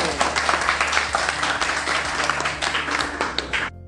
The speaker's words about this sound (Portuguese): Então, olha, temos aqui a primeira dupla com a introdução à Revolução Industrial. Palmas para ele!